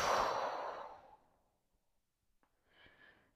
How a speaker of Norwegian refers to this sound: Pust godt inn. Og hold pusten. Og pust ut.